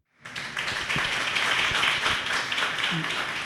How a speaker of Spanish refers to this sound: Les pido por favor un aplauso